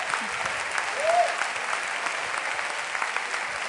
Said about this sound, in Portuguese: Give him praise in this way. Aplauda o Senhor.